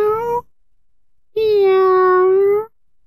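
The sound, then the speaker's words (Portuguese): Two cats meowing from the branches of a very old olive tree: a short meow, a brief pause, then a longer, drawn-out, steady meow, loud and clear with no talking. “Dois gatos o chamam de cima dos galhos de uma oliveira bem antiga. Miau!”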